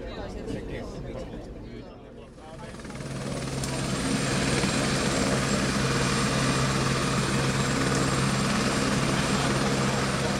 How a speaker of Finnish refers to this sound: Täällä on aikamoinen hurlum, hei meno, helikopteria tulee ja menee tuossa pihan puolella.